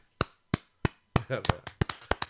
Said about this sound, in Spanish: aplauso triste de dos personas, dándoselo el uno al otro, que es maravilloso también.